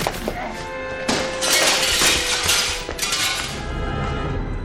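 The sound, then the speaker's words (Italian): Glass shatters in a loud, crashing burst, followed by further bright, jangling waves of breaking and falling shards over several seconds, with tinkling, ringing fragments trailing off. “Mi sono tagliato con il vetro!”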